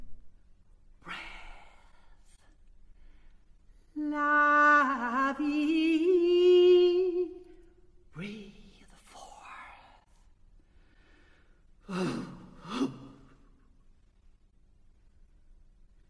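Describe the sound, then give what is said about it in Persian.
Experimental solo vocal music, part of Aria by American composer John Cage, sung from graphic shapes and signs instead of notes: a single voice shifts between breathy whispers, a sustained wavering sung tone, sighs and abrupt snort-like bursts, with pauses between the fragments. “در یکی از اثرهای این دوره به اسم آریا کیج به جای نوتهای موسیقی از چند شکل و علامت استفاده کرد و دست خواننده رو در برداشت از این علایم باز گذاشته با هم به قسمتی از این اثر گوش میدیم”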